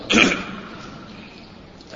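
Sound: sneeze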